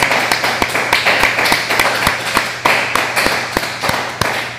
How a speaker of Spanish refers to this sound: Antes de orar, vamos a darles un fuerte aplauso porque nos volvimos a salir a la cuenta de tres, todos aquí. Uno, dos, tres. Fuerte aplauso a todos.